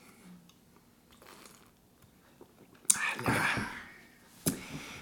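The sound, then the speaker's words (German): Glasses clink together in a toast right at the microphone, loud and harsh. A sharp knock rattles and rings briefly, and a second clink follows about a second and a half later. Soft breathy murmuring comes before it. “Unter anderem, dass wir nicht so laut und nicht so dicht am Mikrofon anstoßen sollen.”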